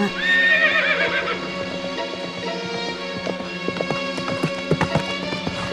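A horse ridden by a prince whinnies loudly at the start, a high wavering neigh, followed by a steady run of clip-clopping hoofbeats as it is ridden past, over a low sustained musical backdrop.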